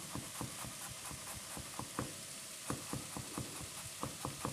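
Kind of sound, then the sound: food or drink, garlic frying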